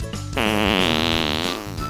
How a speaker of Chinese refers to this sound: 不管熊爸爸他在哪里，他的放屁声都超级响亮。